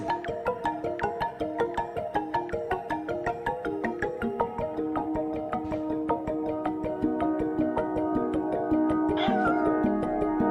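A single cat meow rises briefly near the end over steady, rhythmic plucked music that fills the whole clip. No one speaks.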